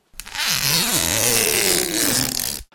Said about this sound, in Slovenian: Takšno kakofonijo pa so med zapiranjem vsakeč znova odigrala vrata hladilnika.